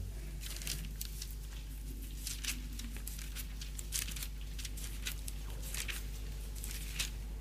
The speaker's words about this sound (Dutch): Hoort u het geritsel? Nee, het, zijn niet de bladeren van een boom, want het is geen herfst. Het, het zijn de bladzijden van Gods woord.